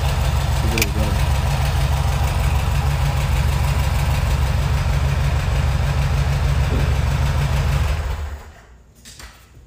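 The engine of a dark brown 1972 Volkswagen Fuscão (Beetle) is started and idles with a steady, low, throbbing rumble for about eight seconds, then the loud drone suddenly drops away to quieter background sound.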